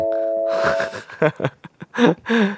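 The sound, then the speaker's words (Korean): A bright ding-dong-dang chime rings out clearly for about a second, marking a listener's entry as correct in a radio word game of phrases starting with '어'. Lively voices and laughter then follow. “야 람디에게 딩동댕”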